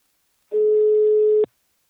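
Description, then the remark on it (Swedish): A single steady telephone ringback tone sounds for about one second, a clear electronic hum that starts abruptly and cuts off with a small click, with silence before and after, as a call is placed to the company Invacare. “Nu tar vi en kort paus och ringer upp min samarbetspartner Invacare.”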